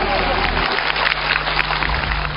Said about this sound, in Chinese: 热情掌声，非常感谢朋友们热情的掌声。